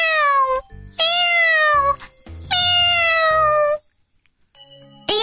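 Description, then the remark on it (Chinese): A cat meows three times in a row, each call loud, drawn-out and sliding down in pitch, the last one longest, with no talking; a short pause and a faint steady tone follow. “真的一只小猫来，吓得老鼠赶快逃，快点快点躲起来！”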